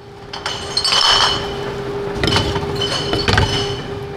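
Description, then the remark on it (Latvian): A reverse vending machine in a shopping centre basement in Riga, Latvia, takes in empty glass bottles one after another, fed by a young man from two large bags on a mid-October weekday evening: repeated clinks and rattles of glass over a steady mechanical hum, fairly loud, with no talking. “Moderns staromāts vienu pēc otras ierauj iekšā tukšas stikla pudeles, kuras tajā no diviem lieliem aisiem liek jauns vīrietis.”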